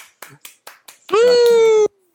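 Five sharp, evenly spaced hand claps ring out in quick succession as applause for a Battle Pass winner, followed by a loud, sustained tonal blast that ends abruptly.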